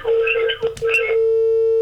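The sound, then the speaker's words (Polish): A steady, continuous telephone tone hums throughout after the flash button is pressed on a phone, loud, with a voice talking over it for the first second before the tone carries on alone. “Dobrze, nacisnąłem hold. Y, nie hold, tylko mm, flash.”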